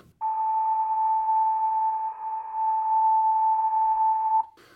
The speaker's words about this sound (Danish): Øh, den anden strategi, det er, at jeg har pustet i en, en guldråd, og så har jeg fundet ud af, ligesom hvis man har en, en, en tværfløj, der kommer der en eller anden form for lyd.